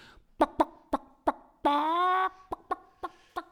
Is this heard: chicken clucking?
yes